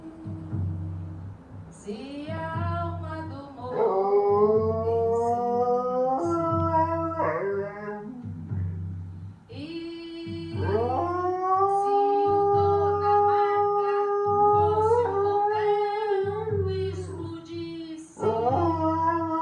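A dog named Harry howls in long, wavering, melodic notes that rise and fall like singing, fairly loud, singing along over a steady rhythmic music backing for about twenty seconds.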